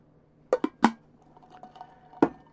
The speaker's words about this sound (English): This might be freaking blasphemy here, but I'm gonna add a couple drops of water to this and see what happens. Four drops of water.